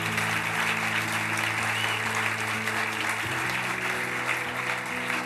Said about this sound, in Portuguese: Aplauda Jesus, aplauda bem forte a Jesus.